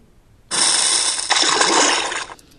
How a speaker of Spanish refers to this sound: Y fíjate cómo me hizo sonido de roca, pero también de agua, porque nuestro planeta tiene agua en particular.